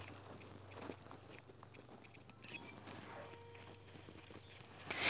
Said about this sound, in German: Oh Mann, schon wieder laufen die weg. Bleibt stehen, ihr dummen Pferde.